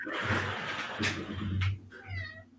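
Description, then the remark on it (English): A cat meows loudly and insistently, with a drawn-out complaining cry followed by a shorter rising yowl, with no one talking over it. “The cat wasn't having it.”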